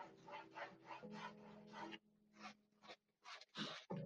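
A planchette scrapes against a wooden ouija board under a bed at 3 a.m., in a quick series of raspy strokes that slow into a few sparser, uneven drags. No voices are heard.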